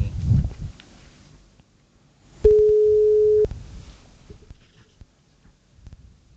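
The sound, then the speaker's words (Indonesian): A single steady electronic telephone ringing tone of an outgoing phone call sounds loudly for about one second, with faint rustling and handling noise before and after it. “oke ini udah ringing malah”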